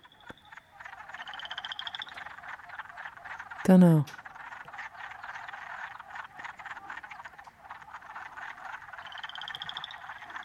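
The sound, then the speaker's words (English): A dense chorus of frogs mating in springtime, croaking nonstop in rapid, overlapping trills, with one louder croak cutting through midway and a person speaking briefly. “This is them uh, mating. It's beautiful.”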